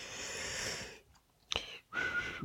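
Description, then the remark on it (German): Someone whistles, breathy and airy, in two short bursts separated by a brief pause, with a faint tone emerging at the end. No one speaks. “Muss ich jetzt hier Jeopardy einspielen oder pfeifst du einfach die nächsten drei Stunden?”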